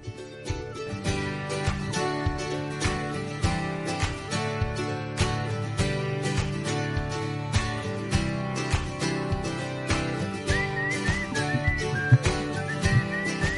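A shrill whistle is blown amid loud, busy band music with strong, steady percussive beats throughout, no one speaking.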